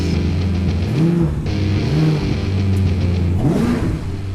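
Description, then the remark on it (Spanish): A car engine turns over and roars to life, then revs several times in rising, whining bursts, loud with a steady rumbling idle between the throttle blips. “Y sin más, Aitor, arrancamos, motores.”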